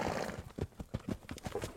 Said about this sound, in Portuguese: levantou a cabeça, bateu as patas no chão e relinchou novamente. Aquelas batidas dele nas rochas ali respondia lá no pé da serra onde eu queria ir.